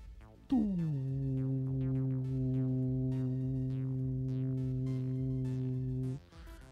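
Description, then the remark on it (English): A heart monitor's continuous flatline tone sounds after a lead comes off, a loud, steady buzzing drone lasting about six seconds before cutting off, with faint scattered blips in the background. “Um, I'm gonna break the circuit and pull off one. Okay. You pull it off and you hear this like one”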